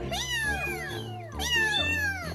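A domestic cat meows twice in a row, each call a drawn-out, rising-then-falling wail, loud with no talking over it.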